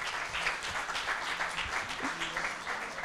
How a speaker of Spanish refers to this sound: Ah, que hay otras dos personas nuevas. bienvenido, bienvenido. Un aplauso.